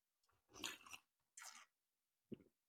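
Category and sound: food or drink, sipping tea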